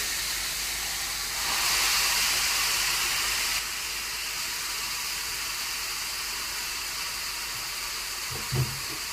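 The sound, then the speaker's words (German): A grill with meat laid on it hisses steadily, swelling louder for a couple of seconds before settling back, and a single soft, dull knock of the grill lid being closed comes near the end. No one speaks. “So, jetzt äh, habe ich den Deckel, der ist jetzt zu, habt ihr ja gehört.”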